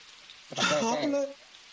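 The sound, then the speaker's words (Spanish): Steady rain patters and hisses throughout, with a person's voice briefly speaking over it in the middle before the rain carries on alone. “¿Qué hace corriendo bajo la lluvia?”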